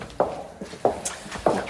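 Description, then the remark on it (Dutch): Three footsteps fall at an even walking pace as people walk along a corridor, each a sharp, moderately loud heel strike with a short echoing tail. No one speaks. “Nou, hier bijvoorbeeld ook als je, we lopen nu in een gang.”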